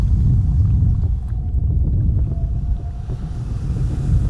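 Heavy wind roars steadily across the whole stretch, a dense low rumble buffeting the microphone, with water and waves churning underneath, like a storm at sea.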